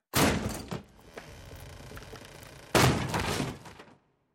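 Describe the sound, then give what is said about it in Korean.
A wooden door to Bartholomew Sholto's room is rammed by men throwing their bodies against it, with a heavy thud and rattle, then crashes down to the floor in a second loud, splintering impact with clattering debris. Forceful, with no voices. “순간 문짝이 바닥으로 나가 떨어졌고 우리는 바솔로뮤 숄토의 방으로 들어섰다.”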